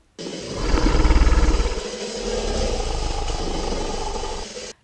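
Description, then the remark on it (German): A deep, rumbling creature roar, a self-made sound-design blend of whale song, a walrus call and a Tyrannosaurus rex bellow, swells loudly, dips briefly, then sustains in a second long growling surge before cutting off abruptly. “was ihr hier hört, ist die Verschmelzung von Walgesang, dem Ruf eines Walrosses und eines Tyrannosaurus Rex”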